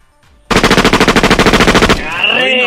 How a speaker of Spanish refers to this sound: A huevo, somos de Michoacán, compa. A nosotros nos gusta tirar balazos, aunque sea en el pinche perro.